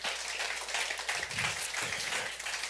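A crowd applauds steadily for the king, dense overlapping claps filling the room at moderate volume from start to finish, with no voices standing out.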